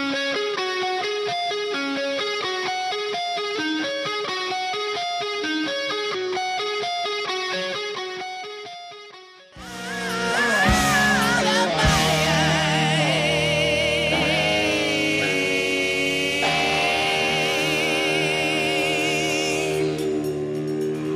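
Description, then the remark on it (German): A hard rock song plays loud and alone: a bright, repeating guitar riff opens, then after a brief dip the full band crashes in with drums and a wailing, distorted electric guitar lead. “Du hast … mitgebracht mit … und hast gesagt, das hast du auf dem Weg zum Spiel gehört.”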